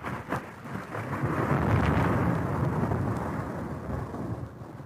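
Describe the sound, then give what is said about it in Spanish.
A heavy thunderclap from a lightning strike rolls through a furious, cold storm, swelling into a deep rumble that lingers over steady rain and gusting wind. No one speaks. “El estampido de un relámpago hizo que ellos vieran a lo lejos la silueta de una construcción.”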